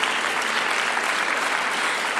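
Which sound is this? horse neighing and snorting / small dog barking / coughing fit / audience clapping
audience clapping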